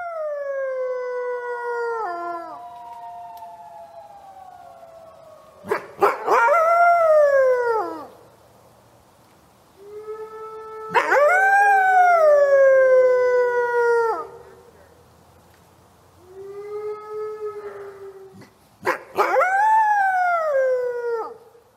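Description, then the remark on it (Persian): A female dog named Minoo, who had recently become a mother, howls in long, wavering, drawn-out cries, about five howls rising and falling in pitch with brief pauses between them, loud, with no talking. “اگه یادتون باشه مینو همون ماده سگی بود که تازه مادر شده بود”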